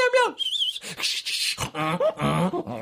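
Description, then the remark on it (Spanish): A person imitates a dog barking with a quick series of sharp, voiced yelps, loud, followed by more playful vocal sounds. “¡Wow, wow, wow!”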